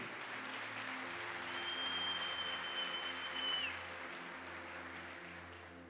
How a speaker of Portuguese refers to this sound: Então dá mais uma salva de palmas a ele.